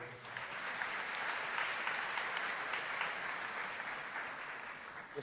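An audience claps for the sound crew, steadily throughout, a dense, even wash of many hands with no pauses or voices standing out, holding a fairly constant loudness from start to finish.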